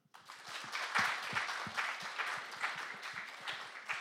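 An audience at a talk applauds for about four seconds when asked who knows Fireburns, a dense, steady wash of many hands clapping at a moderate level, with no one speaking over it.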